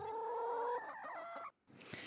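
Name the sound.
chicken clucking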